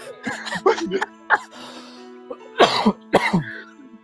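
Several sharp, close coughs in irregular bursts, with throat clearing between them and a steady low hum in the background; no one speaks.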